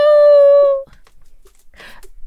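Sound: dog howling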